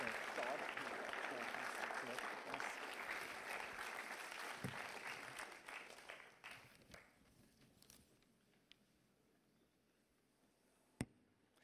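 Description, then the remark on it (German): An audience applauds steadily, the dense clapping holding strong for several seconds before thinning out and fading away, with a single sharp knock near the end. “Merci vielmals, euch einen Applaus.”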